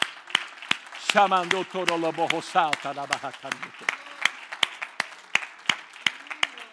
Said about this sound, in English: Hallelujah. Oh, oh, well, oh, let's clap our hand to the Lord. Let's give it unto Him, shall we?